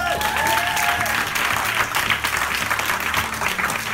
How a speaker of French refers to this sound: Bravo, applaudissez-vous